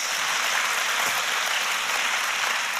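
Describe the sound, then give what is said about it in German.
Sustained applause from a large audience giving God a round of applause, a dense, steady wash of clapping hands filling the whole stretch at a consistent, fairly loud level, with no voices standing out. “Und wir geben mal Gott einen mächtigen Applaus für das, was passiert ist.”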